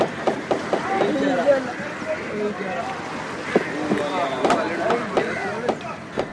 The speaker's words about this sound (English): sounds of the Chinese fishing nets in Fort Cochin, Kerala, India.